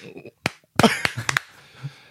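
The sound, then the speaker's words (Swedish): A handful of sharp hand claps land unevenly, about five bursts with no steady beat, two coming almost together, over faint voices and murmuring. “Nu, det där nu, var alltså nu, handklapp i otakt.”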